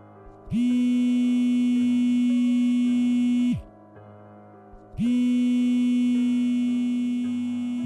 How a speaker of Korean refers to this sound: 그런데 이날을 시작으로 매일 같은 시각에 휴대폰이 울렸다